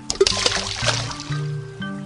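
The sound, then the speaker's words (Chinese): A few quick watery splashes and sloshes as gifts are thrown one after another into a stream, the Moonlight Stream, on a moonlit night, over a sustained tonal background. “不管了，我要把他之前送给我的东西都丢进小溪里。”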